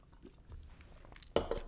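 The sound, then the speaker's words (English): Someone takes a quiet sip of a drink, with soft mouth noises leading into a louder swallow and a brief click near the end. “I'm going to take a sip because I feel like when I talk, my mouth gets really dry.”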